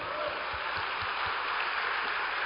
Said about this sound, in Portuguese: É nisso que nós cremos, te louvamos, agradecemos e te aplaudimos, Senhor, em nome de Jesus. Amém.